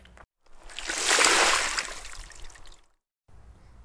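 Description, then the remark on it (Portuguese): A heavy splash of water as startled crocodiles plunge in, surging loudly for a couple of seconds before the churning fades away; no voices. “Assustados, os crocodilos pularam na água.”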